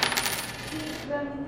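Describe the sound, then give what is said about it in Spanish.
A 200-peso coin drops onto a hard surface with a bright metallic clatter, then keeps ringing with a thin, sustained tone as it settles. Moderately loud, with no voices. “Y esta moneda es de 200 pesos.”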